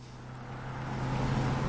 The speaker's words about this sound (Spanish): Después en un coche. Lucía conduce.